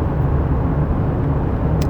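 Steady, low rumbling road noise from inside a moving car in traffic, a constant muffled drone with no voices, holding at an even level throughout.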